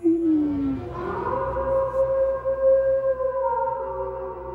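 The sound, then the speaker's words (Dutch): Wolves howling in long, drawn-out wails, several voices overlapping and sliding in pitch over a low rumbling background, with no one speaking. “En hoe zat dat met die wolven die zijn aangezicht hadden aangevreten?”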